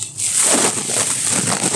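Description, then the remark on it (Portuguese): Steady crinkling and rustling of a plastic bag as someone digs through a bag of junk-food snacks holding chocolate bars, M&M's, peanuts and Piraquê biscuits, a continuous papery crackle lasting nearly two seconds with no voices. “e minha sacola de besteiras.”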